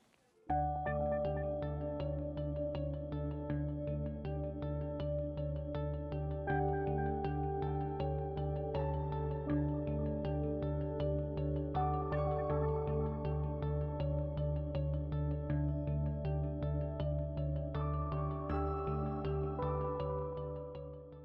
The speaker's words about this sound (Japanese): 何やらえピアノの音が聞こえたりだとか してると思います。えっ、ー、と、今収録しているのはユースプラザイーストちょいという場所。